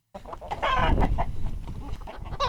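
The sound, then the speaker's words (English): Six chickens cluck together in a busy, overlapping chatter, fairly loud, with a sharper squawk rising near the end. “Six chickens stared at Minnie and Moo.”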